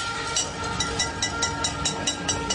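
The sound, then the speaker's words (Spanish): Steady, rhythmic clanging of pots banged by a crowd, with car horns honking in a continuous noisy din outdoors at night; residents of northern Barranquilla protesting with a cacerolazo and car horns over maintenance work by Traselca at the Nueva Barranquilla substation, lasting several minutes; no one speaks. “la noche anterior habitantes del norte de la ciudad protestaron con un cacerolazo y los pitos de su carro.”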